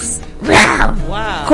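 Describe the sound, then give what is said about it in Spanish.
A person does a short vocal imitation of a lion roar: a loud, rough burst followed by a wavering, growly tail, all over about a second and a half. “Ah, ¿Cómo haría un león?”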